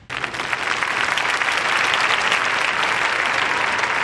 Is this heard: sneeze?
no